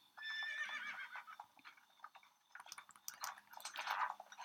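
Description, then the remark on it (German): In a video game, a horse coming back to the player whinnies with a bright, wavering neigh at the start, followed by a quick series of clip-clopping hoofbeats, with a scattered, busy texture toward the end. “So, das Pferd kommt wieder zu uns.”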